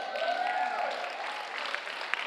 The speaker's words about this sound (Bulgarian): О, ръкопляскай с вяра, ако ще ръкопляскаш, понеже не съм те молил. Там отзад също.